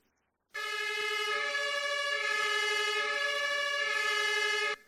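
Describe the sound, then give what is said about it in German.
An ambulance horn as used about 100 years ago, around 70 decibels, blares one loud, sustained, reedy tone for about four seconds, starting abruptly and cutting off at the end, with no voices over it. “Sie haben gesagt, ein Martinshorn auf einer Ambulanz vor 100 Jahren tönte das Martinshorn in etwa so.”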